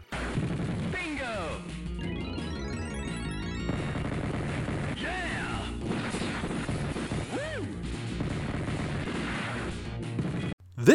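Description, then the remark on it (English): Busy arcade video game audio: rapid electronic gunfire bursts and crashing explosions over synthesized tones and swooping pitch sweeps, loud and continuous throughout before cutting off abruptly. “Have a token on me as you listen to a clip of the game we'll discuss on next week's show.”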